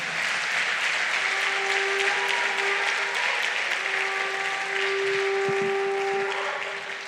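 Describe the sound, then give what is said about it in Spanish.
A shofar sounds two long, sustained blasts at a church service over loud applause and crowd noise, each note held steady for a couple of seconds with a brief break between them. “Que suene el chufar.”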